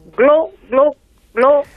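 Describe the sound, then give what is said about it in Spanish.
A voice imitates the gurgling busy tone of a mobile phone that has apparently spent two years underwater: three short, warbling, watery beeps, evenly spaced, with brief silences between them. “Claro, claro, glue, porque es como el, sonido de comunicar en un móvil que ha estado, pues aparentemente, dos años eh, debajo del agua.”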